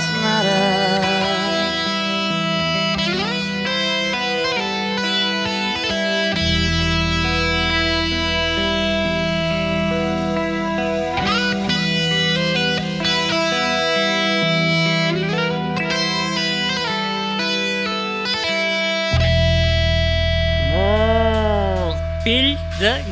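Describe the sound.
A rock song duet plays loudly and steadily, distorted electric guitar chords sustaining under a sung voice that swells with wide, wavering vibrato toward the end.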